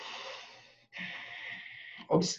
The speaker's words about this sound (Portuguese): respiro profundamente. Na décima já estou cansada.